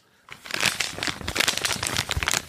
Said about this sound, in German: Es knistert anders, denn wir haben hier eine Papiertüte neuerdings.